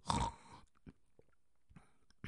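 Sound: voice imitating snoring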